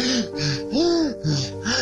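Rapid, strained, forced gasps of someone struggling for air, about four harsh breaths in quick succession with a raspy, wheezing voiced edge, fairly loud with no talking.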